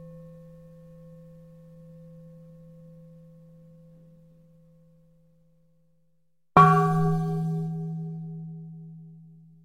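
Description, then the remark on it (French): A saucepan lid rings out like a bell after a single sharp strike, its metallic overtones slowly decaying. Before it, a softer earlier ring fades into near silence. No voices. “Et un couvercle de casserole.”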